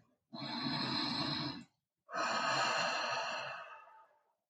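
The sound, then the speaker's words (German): Two long, deep breaths, a slow inhale of about a second and a half followed by a longer, airy exhale, with no talking. “dann beginnen wir tiefere Atemzüge zu nehmen.”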